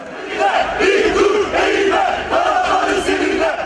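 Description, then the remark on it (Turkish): A loud crowd of Fenerbahçe football fans chants slogans in unison at a justice march along Bağdat Avenue in Istanbul, voices rising and falling in rhythmic phrases, sustained and energetic throughout with a dense roar underneath. “Meşaleler hazırlandı, sloganlar atıldı.”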